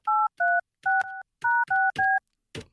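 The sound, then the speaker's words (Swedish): A quick series of telephone keypad tones as a random phone number is dialed, six distinct two-pitch beeps pressed in a steady rhythm, loud, followed by a brief softer click-like sound at the end. “Varje morgon så ringer vi ett random nummer, helt slump, för att försöka komma fram till någon som heter Roland.”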